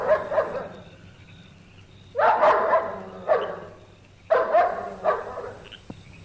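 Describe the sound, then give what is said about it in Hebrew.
A dog named Bobby barks at night in short bursts, several sharp barks in uneven clusters with brief pauses between them, over a low background hum. “בואי נא, בובי. בואי נא. זהו, כלב טוב. כלב טוב.”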